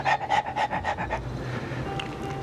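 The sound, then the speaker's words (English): A female dog pants quickly and steadily because she is very hot, about eight rhythmic breaths in the first second, then the breathing fades into quieter background noise with a low hum. “Um, my dog is hot, very hot. I, maybe you can hear her, but she's.”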